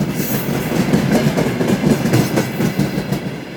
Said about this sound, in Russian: И крики о помощи заглушались звуками проезжающих поездов и электричек, вот как раз такие, с сопровождали меня на протяжении всего моего путешествия.